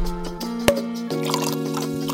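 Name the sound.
champagne being poured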